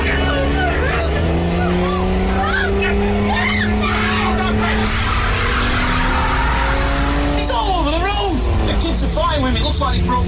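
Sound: car speeding and skidding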